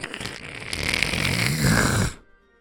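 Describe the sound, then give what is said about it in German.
A voice mimics a door being opened very quietly and slowly, a single drawn-out raspy creaking groan lasting about two seconds, rising slightly in pitch before cutting off into silence. “Du gehst langsam rein, du öffnest die Tür ganz, lang, ganz leise und langsam, hörst du so ein kleines”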